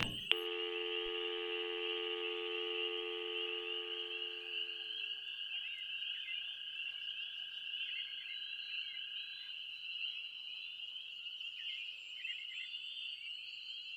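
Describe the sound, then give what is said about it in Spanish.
A public telephone, used to call the police, hums with steady, fairly soft electronic tones, starting with a sharp click. A lower layered tone drops away after about five seconds, leaving one high, continuous pitch with faint warbling flutters. “Y utilizamos un teléfono público para llamar a la policía, pues teníamos la esperanza que nuestro amigo siguiera con vida.”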